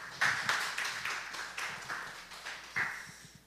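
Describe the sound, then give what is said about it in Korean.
An audience claps together, sharp overlapping slaps forming a steady, moderately loud patter with a few stronger beats standing out, then thinning toward the end. No voices are heard. “모두 연박수 하겠습니다.”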